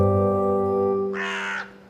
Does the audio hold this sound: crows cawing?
yes